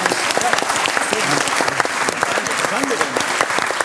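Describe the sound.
A room full of people claps steadily and fairly loudly for several seconds, a dense patter of hands with a few voices faintly audible underneath.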